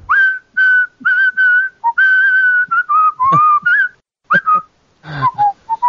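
Someone whistles a bouncy tune in a series of clear, bright phrases, with short gaps and a few sliding notes between them, fairly loud and with no talking.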